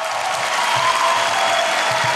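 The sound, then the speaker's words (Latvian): Loud, sustained applause from a large audience in a hall, a standing ovation for an actress after her speech declining the Lielais Kristaps award, with dense, steady clapping that holds an even level throughout and no voices. “Aktrise pavadīja stāvu ovācijas zālē, kā arī sociālajos tīklos vienaldzīgais šai runai nebija.”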